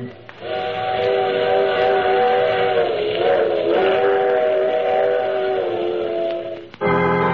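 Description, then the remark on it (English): A loud, sustained steam train whistle sounds for several seconds, its chorded tone steady, over the rushing, hissing rumble of a moving train. “I take this same train every week at the same time.”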